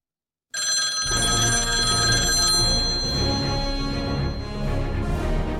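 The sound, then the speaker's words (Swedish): A telephone bell rings loudly and steadily while a call is placed to a guest, starting abruptly after a brief silence and continuing without pause, with a dense rumbling clatter underneath and no one speaking. “Men eh, jag tänker så här, vi, vi kollar och ringer upp vår gäst och ser om han är, ja, ja, om han är standby.”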